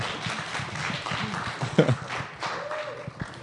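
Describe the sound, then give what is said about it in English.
A crowd applauds with dense, steady clapping that fills the whole few seconds, a bit subdued, with a faint voice or two briefly poking through the noise. “Clap for us because there's people on the internet eventually who are going to hear this.”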